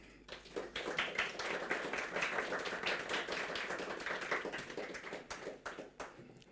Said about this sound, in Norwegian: Gi en varm applaus til Ellen Nødtvedt.